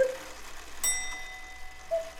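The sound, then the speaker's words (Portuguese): A cuckoo clock strikes once: a single bright metallic chime that rings on and slowly fades, with soft short tones before and after it. Moderately quiet, and no one speaks. “O ouvido da dona Inácia não ouvia a voz da divainha sussurrando ao doce embalo das batidas do relógio.”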